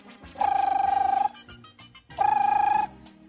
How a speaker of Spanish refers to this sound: Y que suena el teléfono.